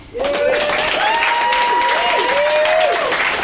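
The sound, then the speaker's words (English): Sustained audience applause at a comedy show, the audience applauding themselves and the comics, a dense steady roar of many hands clapping that holds loud and even for the whole stretch, with a few cheers and whoops rising above it. “Round of applause for yourselves and for”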